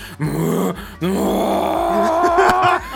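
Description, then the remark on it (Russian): A person vocally imitates a corgi yelping as it grips a hoop and is spun around, making strained, groaning wails in a few bursts, the last one long, loud and wavering in pitch. “Знаешь, я думаю, если бы Корги мог орать, вот он, он, он реально вот так бы потому что такой вот так вот делает.”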